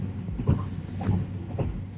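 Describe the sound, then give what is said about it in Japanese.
Steady low rumble of the Sunrise sleeper train travelling toward Yokohama, Japan, heard from inside a carriage, with creaking and rhythmic clunks about every half second over the continuous drone. “えーと、電車の走行音が入ったりしてるかもしれないですけどちょっと車内なんで声のトーンは抑えめで喋っていきたいと思います途中車内アナウンスとか入るかもしれないですけどそこはご了承くださいあちょっと今うるさいです”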